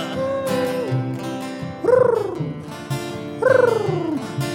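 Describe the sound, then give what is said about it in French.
A human voice imitates a pigeon's cooing with two drawn-out, falling coos, fairly loud, separated by a short pause, over a faint background murmur. “Ça veut dire je t'aime, mais en pigeon.”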